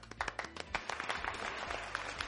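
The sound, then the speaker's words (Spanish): A brief burst of applause for the film Toy Story 4, dense overlapping hand claps forming a steady crackling patter at moderate loudness, with no voices over it. “aplausos para Toy Story 4.”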